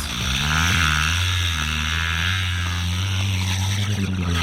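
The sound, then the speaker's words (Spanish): An orca mimics a laboring motorboat engine: a loud, continuous low drone with stacked harmonic tones that waver and sputter slightly, heard alone without any talking. “ahora les vamos a presentar el sonido de un motor de lancha, pero hecho por una ballena.”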